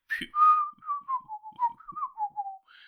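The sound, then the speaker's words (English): Someone whistles a short melodic phrase of an old pop tune, a string of clear, gliding notes with brief breaks between them and no talking. “I probably did a horrible whistling version of that song, but you know, you know the song.”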